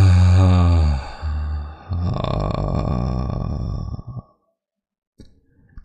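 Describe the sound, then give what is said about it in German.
A deep, voiced moan that drifts into a long, breathy sighing exhale, fairly loud, followed by a short pause and a faint breath at the end. “Wenn ich zum Beispiel zu jemand sage, atmet mit einem tiefen Stöhnen und Seufzen aus.”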